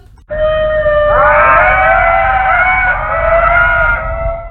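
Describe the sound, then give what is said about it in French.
Ring-tailed lemur calls: several loud, overlapping wailing cries rise and waver together in a continuous eerie chorus lasting a few seconds, with no talking. “Les Makikata font partie de la famille des lémuriens que l'on appelle également lémures.”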